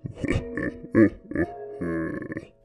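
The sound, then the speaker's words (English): A voice imitates a hungry stomach growling and grumbling: a series of low, throaty gurgles and rumbles in uneven bursts, ending in a longer drawn-out groan, moderately loud. “her stomach continued to growl and grumble as her eyes scanned the different shelves of the fridge.”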